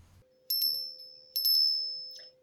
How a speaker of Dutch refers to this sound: Hé, hey, hoor ik daar Mira? Jawel, er is weer een belletje.